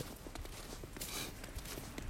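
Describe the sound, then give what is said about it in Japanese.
Steady footsteps crunching through fresh snow while heavy snow is falling, on Tuesday, November 28, a soft, regular walking rhythm, with no voices and a faint background hiss. “で今もね足音とかでわかるんじゃないかなちょっと車通るけど そう今ね目の前すごいっすよめっちゃ雪降ってて”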